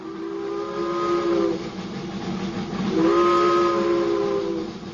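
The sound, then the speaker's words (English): A steam locomotive whistle, from a locomotive pulling a school car in Ontario, sounds two long, loud blasts separated by a short gap, over a steady rumble and hiss of steam. No voices are heard. “It began with two chugging steam locomotives school car number one and school car number two.”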